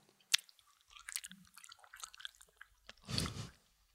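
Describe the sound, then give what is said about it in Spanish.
Wet chewing and crunching on a hard mint candy, with scattered clicks and squishy mouth sounds, then a louder swallow-like gulp near the end. No talking. “Intenté pasar una menta y armó el desmadre en el podcast.”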